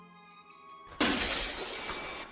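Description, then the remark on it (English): A sudden, loud crash of window glass shattering, bursting in after a quiet, tonal lead-in and trailing off into a bright scatter of falling shards. “The glass on the window shatters, and we watch in horror as the murder of crows peck away at Anthony's body.”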